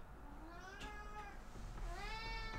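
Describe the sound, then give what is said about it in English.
A cat meows twice, each call long and drawn out with a rising then falling pitch. The meows are fairly quiet over a low background hum, and no one speaks. “You're gonna hear my cat meowing in editing.”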